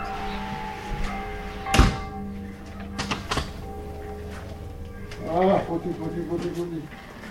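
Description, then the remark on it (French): A door shuts with a single solid thud, followed by a couple of lighter knocks, over a steady low hum, as a France Inter radio host closes the door at the end of an interview with a country doctor. A brief voice-like murmur comes near the end. “Je ferme la porte.”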